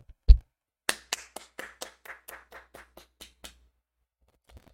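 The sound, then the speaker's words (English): One sharp thump, then a single person claps about a dozen times in a quick, steady rhythm, starting loud and tapering off softer, as applause for Luka Legend getting out of the first round of the playoffs. Nobody speaks. “I'm gonna give him a round of applause for that.”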